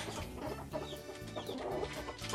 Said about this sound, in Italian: Qua abbiamo la gallina araucana, che è quella delle uova azzurre.